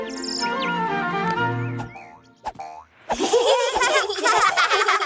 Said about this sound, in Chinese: 我看不见了，有只小鸟站在我鼻子上。 好甜美的声音啊，听起来好好听哦。